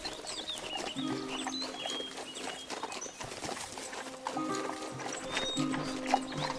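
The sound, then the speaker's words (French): Steady clip-clop of a tired horse's hooves walking at an easy pace, with faint rustling and some bird chirps in the background. “Bonjour monseigneur, bien fatigué votre cheval.”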